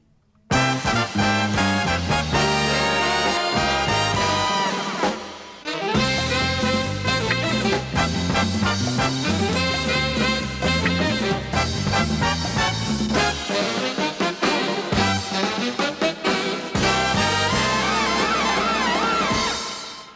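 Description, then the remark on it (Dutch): The instrumental theme tune of the TV programme Studio Sport, composed by Tony Eijk, plays loudly and continuously, bright and full, with punchy brass-like stabs and a driving rhythm, briefly pausing around five seconds before surging back in. “Wat u nu hoorde was uiteraard de tune van het tv-programma Studio Sport, gecomponeerd door Tony Eijk.”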